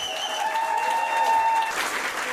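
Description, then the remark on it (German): Supporters applaud steadily and cheer, with whistles and high shouts rising over dense clapping in a reverberant courtroom of the Higher Regional Court (Oberlandesgericht) in Dresden on a Wednesday, as a 28-year-old defendant enters, building slightly toward the end. “Ein bisschen klingt es so, als würde hier ein Popstar begrüßt.”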